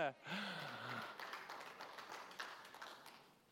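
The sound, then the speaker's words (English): Light, scattered golf clap from a small audience, soft, with a brief voice at the very start before the polite patter tapers off. “that was a good golf clap.”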